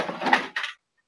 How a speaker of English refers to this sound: Oh, don't mind the fact that I just knocked my cat off my desk. if you could hear that rustling in the background.